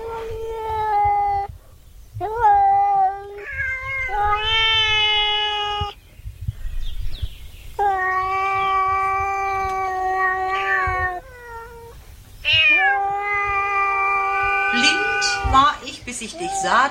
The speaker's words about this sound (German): oh, ist glaube ich noch eine Katze in der Fensterbank